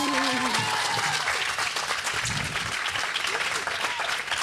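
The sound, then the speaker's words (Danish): A crowd in Aarhus claps steadily and loudly to welcome guests onto the stage, the dense applause filling the whole stretch, with a few cheers or voices briefly rising underneath near the start. “En øh, kæmpe hånd til jer endnu en gang, så øh, velkommen til scenen med jer.”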